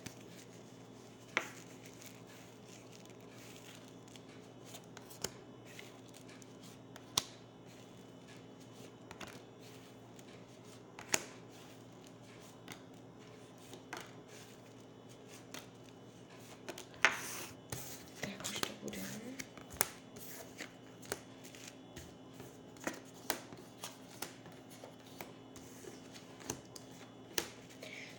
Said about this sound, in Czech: A já už se dívám na vaše fotky, míchám u toho karty